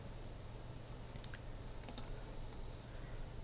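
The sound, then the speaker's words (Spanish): A few quick, soft computer mouse clicks, one and then a pair about half a second later, as someone clicks on frame 10 of a layer in animation software, against a steady low background hum with no one talking. “Lo que voy a hacer va a ser lo siguiente, hago clic en el fotograma 10,”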